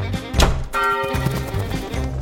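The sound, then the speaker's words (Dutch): A blacksmith's hammer strikes a glowing hot iron bar on an anvil: a sharp, heavy clang, then a second strike that leaves a bright metallic ring with sustained overtones. No voices. “Het is de smidmaar die met zijn hamer slaat.”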